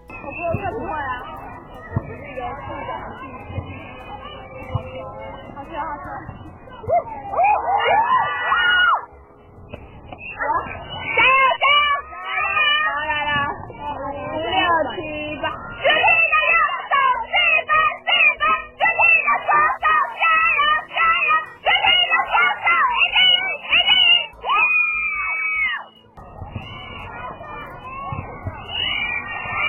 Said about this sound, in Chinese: 只要是女校有运动竞赛的时候，一定都会有充满活力的尖叫声啦。这是我在高一的时候班上排球比赛的尖叫声跟队呼。